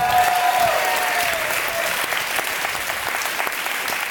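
Loud, sustained applause from a live concert crowd after the encore as a band member walks to the merch stand, dense clapping filling the whole moment with a brief whistle near the start, no talking over it.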